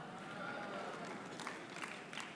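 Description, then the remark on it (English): A few scattered, hesitant claps from an audience, sharp isolated pops spaced unevenly over a steady murmuring crowd hiss, never building into full applause. “That's like a nervous clap, like I think we should clap, but I don't know.”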